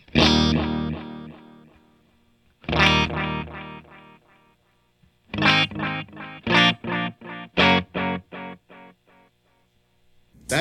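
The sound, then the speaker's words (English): Electric guitar played through a tape echo pedal on an aged setting: two ringing chords that trail off in softened repeats, then a run of rhythmic chord stabs, each with a warm, slightly murky echo. “When I hit the uh, when I hit the aged button, all of a sudden it started to really get that that flavor of the old ones.”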